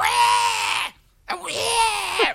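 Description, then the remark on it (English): Two loud, shrill, excited screams from a prize winner, each lasting about a second, separated by a brief silent pause, the second one rising and wavering at the end. “I'll go though? instant replay for the scream.”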